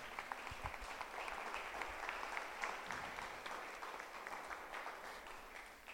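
An audience claps steadily for several seconds in a loud round of applause for the Lord, a dense patter of many hands blending into continuous applause at a fairly even loudness, easing slightly at the end.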